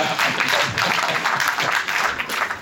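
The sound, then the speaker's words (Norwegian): An audience breaks into steady applause, a dense wash of many hands clapping at an even, fairly loud level throughout without pause. “Oh, Applaus på den, da, hadde jeg faen ikke trodd.”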